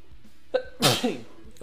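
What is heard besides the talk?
sneeze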